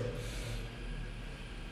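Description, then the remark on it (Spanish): A slow, deep breath drawn in through the nose, airy, lasting a couple of seconds with no talking over it: the third breath of a meditation exercise. “Respira la tercera vez.”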